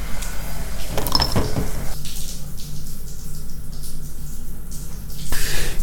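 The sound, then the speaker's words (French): Water runs steadily from a shower as a person showers after a workout, a continuous hiss that swells and shifts as the spray is interrupted, with a few clattering bumps at the start and end. “Je vais aller prendre une douche.”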